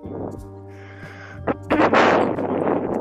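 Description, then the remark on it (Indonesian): An electric fan runs steadily with a low, humming drone, then a louder rush of blowing air swells over it in the second half, like breeze buffeting a microphone. “ini ada suara kipas angin siapa sih nih ya ketahuan kan kampungnya kan nggak bisa pakai AC norak kan ketahuan pakai kipas”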